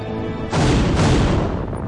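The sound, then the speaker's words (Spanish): A loud, deep explosion erupts suddenly, followed by a second blast close behind, leaving a heavy rumbling roar that slowly fades, depicting the two explosions of reactor number 4 at the Chernobyl nuclear power plant in Ukraine on 26 April 1986. No voices are heard. “Dos explosiones y un incendio que duró 10 días liberaron al aire miles de millones de partículas radiactivas contaminando extensos territorios en diferentes países.”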